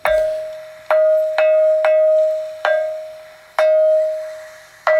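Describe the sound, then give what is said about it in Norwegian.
A ringing stone (lithophone) struck seven times at an uneven pace, each hit giving a bright, clear tone that rings on steadily between blows. Loud, with no voices. “Han registrerer klangsteiner, altså steiner som er blitt slått på i kultisk sammenheng Fins masse i Norge.”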